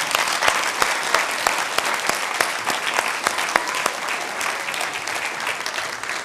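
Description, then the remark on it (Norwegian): Sustained applause from a church audience at a Christmas service, for those who led the service: a dense steady patter of many hands clapping at even loudness throughout, with a few sharper individual claps standing out and no voices. “Og så har jeg lyst til å gi en applaus til disse her som har ledet oss gjennom gudstjenesten i dag.”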